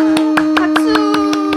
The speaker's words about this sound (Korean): 저희 대화가 100회를 맞이했어요. 와 박수